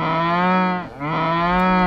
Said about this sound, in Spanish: le encantaban los mugidos de las vacas. Soñaba con poder mugir algún día como ellas.